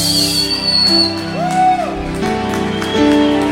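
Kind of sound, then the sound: crowd, audience applauding and cheering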